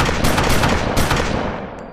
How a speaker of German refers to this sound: Dann hört er ein Geräusch aus der Toilette und feuert daraufhin viermal seine Pistole ab.